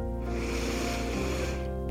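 A long, deep, cleansing and calming breath drawn in through the nose before a meditation, a steady airy rush lasting about a second and a half, fairly loud, with no talking over it.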